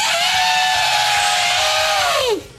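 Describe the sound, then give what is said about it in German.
A person imitates an elephant's trumpet: one loud, sustained, brassy cry lasting over two seconds, holding a steady high pitch before sliding sharply downward and cutting off. “ich kann nur den Elefanten.”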